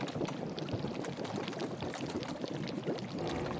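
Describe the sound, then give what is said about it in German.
Thick liquid bubbles and gurgles steadily in a large cauldron over the fire of an open hearth, a dense wash of small pops and blurps, fairly loud, with no voices. “Ein großer Kessel steht auf dem Feuer. Etwas blubbert darin vor sich hin.”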